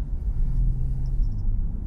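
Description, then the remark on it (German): Steady, loud low-frequency rumble of a car driving to a drop-off station to be returned, heard from inside the cabin, with continuous road and engine drone and a few faint high chirps near the end. “Und äh, wir gondeln jetzt erstmal hier gemütlich äh, zur Abgabestation und geben unsere s wieder ab.”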